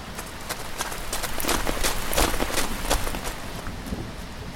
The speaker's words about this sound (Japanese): あら本当もう降り出したみたい本当だ急に降ってきたね多分すぐにやみますよ